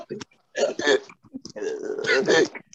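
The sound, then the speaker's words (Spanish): A voice imitates hiccups with several short, loud, gulping vocal bursts in an uneven rhythm, with brief pauses between them. “Vas con hipo.”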